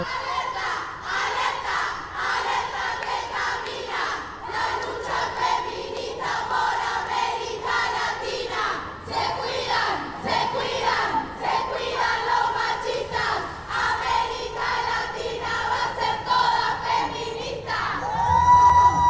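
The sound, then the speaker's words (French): A large protest crowd loudly chants a feminist slogan from 2018, 'Latin America will become entirely feminist', in unison, the rhythmic shouted phrases repeating steadily with voices swelling together and occasional cheers rising above the chant. “C'était un slogan fort de 2018. L'Amérique latine va devenir entièrement féministe.”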